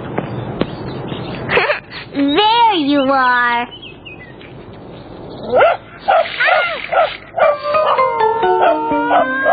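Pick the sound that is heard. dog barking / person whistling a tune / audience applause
dog barking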